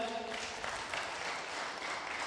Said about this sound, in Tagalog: Palakpak nga po muli kay God.